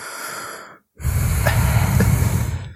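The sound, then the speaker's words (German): A voice imitates heavy, effortful breathing as when putting shoes on: a short noisy inhale, a brief pause, then a longer, louder strained exhale with a faint rasp, no words spoken. “Aber ich mache neuerdings auch so, ich, man hört mich atmen.”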